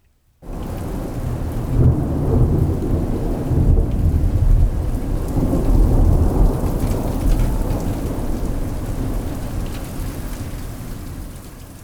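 Heavy rain pours steadily and loudly, with deep rolling thunder rumbling underneath for nearly twelve seconds. No voices, just a dense, continuous storm wash.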